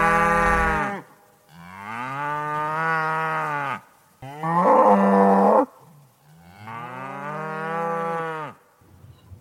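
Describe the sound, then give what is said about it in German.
Many cows moo loudly in the countryside, four long drawn-out calls following one another with short pauses between them, and no voices alongside. “Oh, da sind viele Kühe.”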